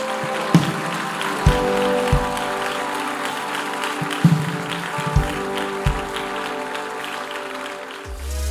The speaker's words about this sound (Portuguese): Aplauda Jesus bem forte.